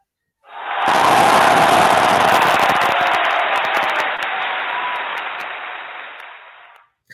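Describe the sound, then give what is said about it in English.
A burst of crowd applause, loud and dense, swells in quickly, holds steady for about six seconds, then cuts off abruptly. No one speaks over it. “So get that applause sound effect ready.”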